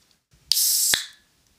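A beer bottle is opened up close: a sharp pop, a short loud fizzing hiss of escaping gas, and a second click before the hiss fades out. No one speaks.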